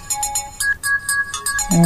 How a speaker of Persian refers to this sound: بذار جواب تلفن رو بدم بعد با هم صحبت میکنیم